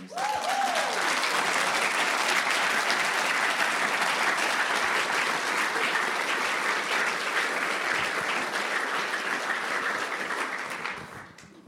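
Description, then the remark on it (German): Loud, sustained audience applause for the technicians: dense crackling clapping that holds steady for about ten seconds with a brief rising whoop early on, then tapers off at the end. “Zum Beispiel Leute, uns doch heute mal unseren Technikern einen riesen Applaus geben.”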